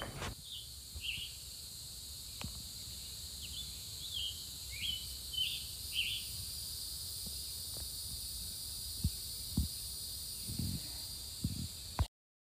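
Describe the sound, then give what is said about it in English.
Outdoors in a park on Sunday, June 18th, a few faint, high bird chirps come in a loose cluster during the first half, over a steady, shrill insect drone and soft, low rumbles and knocks. “Here's some bird song from Sunday, June 18th. I think I was in Beaman Park.”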